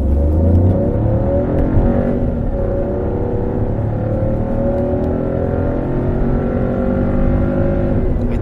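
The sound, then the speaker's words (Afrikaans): A Citroën C3's 81 kW 1.2-litre three-cylinder turbo petrol engine revs steadily, its throaty growl holding a low, rough pitch with rising and falling harmonic sweeps as the revs change, loud and continuous with no talking. “mooi 3-silinder grom, sy 81 kW 1.2 liter petrol turbo sorg vir lewendige verrigting.”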